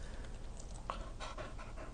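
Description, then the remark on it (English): A female dog inside a car pants right in a person's face, quick breathy huffs in a steady rhythm, loud, with no talking. “She's literally right in my face and br- panting into my face.”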